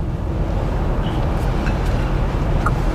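A steady, loud low-frequency rumble of a car engine and road noise as a Flying Spur luxury car drives up and down the Route de Cret mountain road, with a few faint brief high chirps on top.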